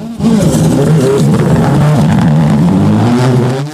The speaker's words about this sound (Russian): Хотя можно догадаться по прерыванию звука, когда машина взлетает на трамплине, что это ралли. В данном случае это фордовский